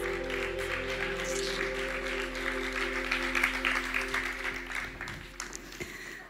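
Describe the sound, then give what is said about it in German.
A crowd applauds the band steadily for several seconds, a dense wash of clapping that holds level before thinning out toward the end, with a low musical hum sustained underneath. “Gebt der Band mal einen Applaus.”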